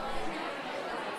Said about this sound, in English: Uh, so I'm broadcasting from the Radio Free Brooklyn media table in the Grand Ballroom here. Uh, people are going to be milling about. That's the sound you hear in the background